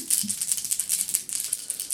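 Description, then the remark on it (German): Dice clatter across a hard tabletop in a quick run of small clicking knocks that rattle on for a couple of seconds, moderately loud, with no voices. “Ja, war nicht so ein guter Wurf.”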